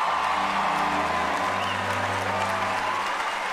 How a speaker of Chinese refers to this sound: 当颁奖嘉宾喊出莱昂纳多·迪卡皮里奥的名字的时候，全场掌声雷动。